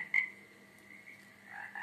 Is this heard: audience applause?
no